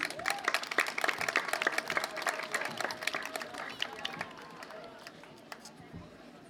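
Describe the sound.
Audience applause for a speaker from the LAG Queer working group of Die Linke: dense, steady clapping from many hands with a few voices calling out, fading gradually toward the end.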